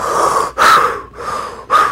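Loud, exaggerated deep breaths, several airy inhales and exhales in quick succession with brief pauses between, a deliberate demonstration of trying to breathe deeper. No talking.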